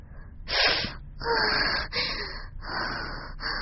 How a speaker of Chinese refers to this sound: 两张嘴同时发出吸气的声音